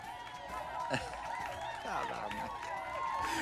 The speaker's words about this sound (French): puis je lance les applaudissements à l'instant.